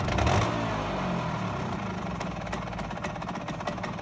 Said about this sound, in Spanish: Y cada vez que pasa un motorino, como lo llamaban así, me vuelve todo, todo entero.